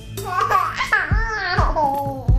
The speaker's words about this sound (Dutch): Baby's lachen namelijk terwijl ze in- en uitademen. En dat is anders dan een lach bij een volwassen mens die alleen maar uitademend lacht.